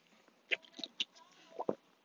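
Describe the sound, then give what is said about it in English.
A few wet gulps as someone drinks water, spaced irregularly with quick swallowing clicks, with no talking. “Let me drink some water. I'm sorry for the swallowing noises.”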